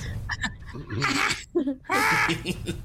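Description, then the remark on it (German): A person imitates a crow, letting out two harsh, raspy caws, with a few smaller throaty sounds leading into them. “das Chat wer das beste Krähengeräusch macht.”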